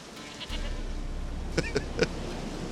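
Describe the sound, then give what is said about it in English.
The Peller's goat bleats three times in quick, shaky bursts, heard over a low, steady background rumble with no talking. “You got a goat right there.”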